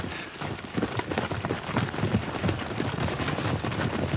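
Rapid footsteps hurry along a hard corridor floor, a steady quick patter of running feet with a slight echo, continuous throughout, with no voices; an archive recording from Lydarkivet of running in the corridors.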